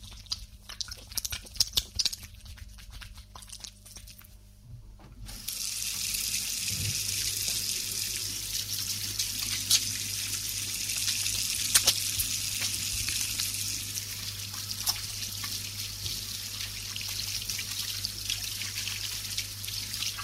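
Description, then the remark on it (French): Crêpes being made in a kitchen, recorded with a 3D microphone: a few scattered clinks and taps, then a loud, steady sizzle of batter frying in a hot pan that runs unbroken to the end, with occasional small clicks. “de micro 3D et on lui a proposé de faire des crêpes.”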